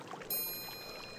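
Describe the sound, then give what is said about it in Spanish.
Steady flowing water, played as a sensory therapy, fills the short clip with a soft, continuous wash, and a bright high chime rings in shortly after it begins and lingers over the water. “Por favor, quédense con nosotros unos momentos más para recibir el beneficio de una terapia sensorial, el sonido del agua.”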